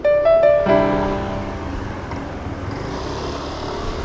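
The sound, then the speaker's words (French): Steady street traffic outside the Ménilmontant metro stop in the 11th arrondissement fills the scene, a continuous wash of passing cars and engine rumble, opening with a brief, bright tonal blare that fades as the traffic noise carries on. “Je viens de descendre à l'arrêt de métro Ménilmontant.”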